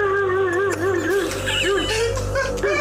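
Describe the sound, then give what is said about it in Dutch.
A dog barks in a quick rhythmic series, its voice strained and wavering almost like a howl, with a low steady hum running underneath. “Ja, hier is een hond.”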